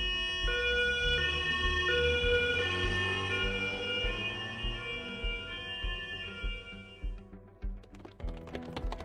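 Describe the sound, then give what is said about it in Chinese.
A loud ambulance siren wails, its high tones stepping back and forth in a steady alternating pattern over a rumbling engine, then fading into a run of sharp clattering ticks at the end. “救护车会把伤员送到医院。”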